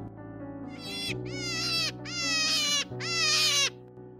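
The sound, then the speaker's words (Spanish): A hare suffering from myxomatosis crying in agony: four drawn-out, wavering, bleat-like wails with rich harmonics, each rising and falling in pitch, loud and repeated in close succession over a steady low hum. “Este sonido corresponde con el agonizante sufrimiento de una liebre afectada por mixomatosis.”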